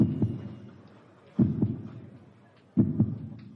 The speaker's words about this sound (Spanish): su corazón palpitaba tan rápido y tan fuerte que él mismo podía escucharlo.